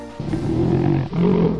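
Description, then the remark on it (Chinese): Two bears fighting over honey roar in two long, deep, growling bursts, the second following a brief pause. The sound is loud and rough, with no voices present. “这时我看到两只狗熊为了争吃蜂蜜正在打架”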